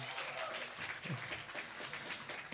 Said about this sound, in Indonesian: Eh, tepuk tangan buat mahasiswa yang Tulang Agung.